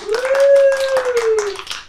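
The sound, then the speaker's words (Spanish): Brisk, uneven applause from a few people, fairly loud and lasting about two seconds, with a steady held tone running beneath the claps for most of it. “Un aplauso para todos.”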